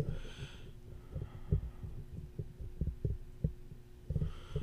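A Windows desktop computer hums with a steady low drone, while soft irregular thumps tap underneath. The whole sound is quiet, with no voices.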